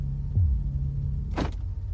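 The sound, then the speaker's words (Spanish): A taxi's car door lock unlatches with a short, sharp mechanical clunk over the steady low hum of the idling taxi. No one speaks. “Se abre el pestillo de la puerta.”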